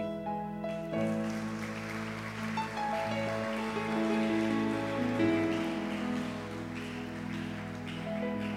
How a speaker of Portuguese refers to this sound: E enquanto eu tomo um copo d'água, você dá glória a Deus. E se você quiser aplaudir o Senhor, você também pode aplaudir.